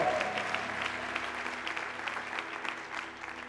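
An audience applauds steadily, a dense wash of many hands clapping at an even level throughout, with faint voices and a low sustained tone underneath.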